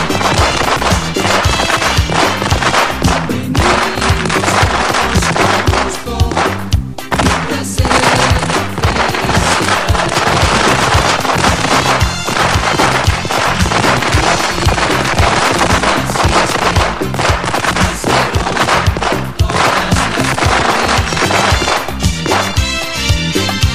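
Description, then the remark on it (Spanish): Firework rockets, the culebrón, are lit and explode in a loud, nonstop barrage of rapid cracks and bangs, overlapping into a dense crackling roar that holds steady for over twenty seconds with no voices. “Enciéndase los cohetes, el culebrón.”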